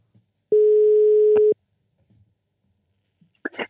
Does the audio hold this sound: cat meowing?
no